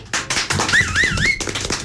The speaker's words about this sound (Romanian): Aplauze!